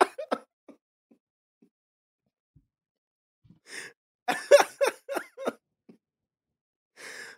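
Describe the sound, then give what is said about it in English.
A soft breathy sound opens, then after a pause comes a quick run of rough, raspy throat-clearing bursts, fairly loud, followed by a breathy exhale. “the minute they clear their throat, all right, you don't have to do it again.”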